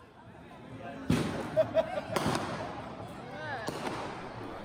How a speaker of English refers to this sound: This was the sound on Jackson Street back in late January of 2020. The sidewalk was covered in strips of red tissue paper. The air smelled sort of burnt because firecrackers and fireworks were going off constantly.